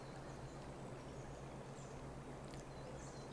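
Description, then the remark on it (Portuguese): A soft, steady rush of flowing stream water runs continuously in nature, fairly quiet and even, with a low hum underneath and a few faint, high bird chirps. “Sente a brisa, a natureza, a água, os pássaros.”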